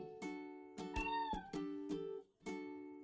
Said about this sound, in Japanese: 猫も泣いてます。